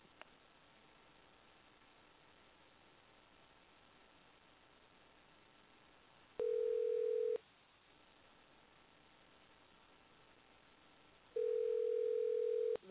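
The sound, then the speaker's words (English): Faint phone-line hiss, then a steady telephone tone sounds for about a second, pauses for several seconds, and returns once more, clear and fairly loud, with no one talking, as a phone number is being dialed. “I'll just try dialing her on the number she gave me again.”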